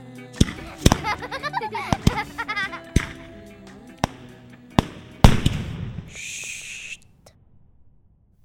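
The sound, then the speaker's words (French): Firecrackers go off in a loose string of about seven sharp, loud bangs spread over several seconds, over a shifting tonal background, ending in a brief hissing fizz before fading out. “Les pétards réunissaient deux de mes passions, le feu et le bruit.”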